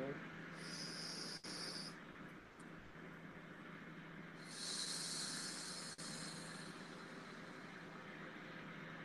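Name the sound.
a deep breath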